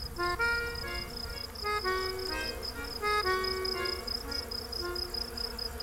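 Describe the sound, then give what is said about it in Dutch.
A dense chorus of millions of insects and sparrows in trees among date palms drones steadily at a high pitch throughout, overlaid with shorter tonal trills and calls that come and go, with no voices. “Als de insecten en de vogels stil worden, dan horen wij mermeries, een klein riviertje.”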